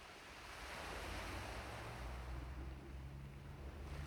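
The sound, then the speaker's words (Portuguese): Calm, steady ocean surf washes onto a beach, a broad continuous rush of water with a soft low rumble, unbroken by any voices. “Volte para o barulho calmante das ondas, para o cheiro maravilhoso do mar, da praia.”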